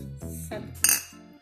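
glasses clinking

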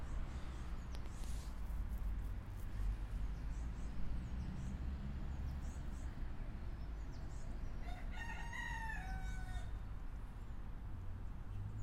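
rooster crowing

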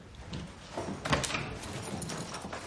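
door being closed

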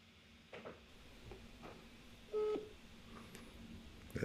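telephone dialing tones

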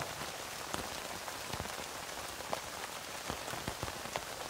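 rain falling

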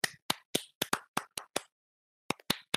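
hand clapping

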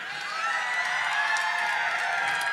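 audience applause and cheering

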